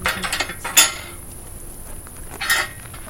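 A metal horse paddock gate in Höxter, North Rhine-Westphalia, Germany, is unlatched and swung open by a woman going to greet her brown mare Scully: rattling, clinking metal at first, then a sharp clank, and a second, quieter clank a couple of seconds later. No one speaks.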